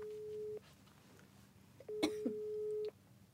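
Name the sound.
telephone ringing tone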